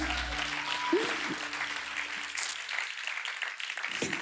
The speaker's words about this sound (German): So cool, vielen Dank, liebe Band. Dankeschön, gebt den mal einen Applaus, Dankeschön.